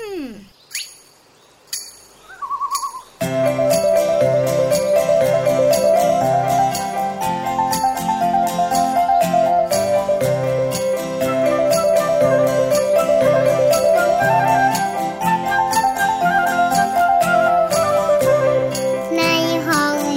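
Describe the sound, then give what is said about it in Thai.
After about three seconds of sparse, quiet sounds, a song played during a break starts abruptly and plays loud and steady, with a wavering lead melody over dense, rhythmic accompaniment. “ตอนนี้พักสักครู่กันนะฟังเพลงฟังเพลงกัน”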